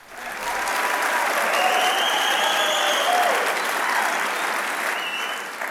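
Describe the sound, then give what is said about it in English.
A live audience of about 2,000 people in Nashville, Tennessee, applauds loudly and steadily, a dense wash of clapping that swells in quickly and holds for several seconds, with faint cheers mixed into the roar. “This one was recorded live in Nashville, Tennessee, in front of 2,000 friends of ours who were, well, they were quite engaged, as you can hear.”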